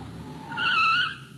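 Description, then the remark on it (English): A car's tires screech in a sharp, rising squeal that swells for about half a second and then cuts off as the vehicle skids to a sudden halt, heard loud over low engine rumble. “Now, Why did you have to stop? We can talk while you're driving.”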